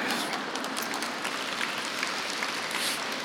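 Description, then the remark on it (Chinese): An audience at a speech applauds steadily, a dense wash of many hands clapping at an even level throughout, with no speech over it. “还没鼓掌完呢”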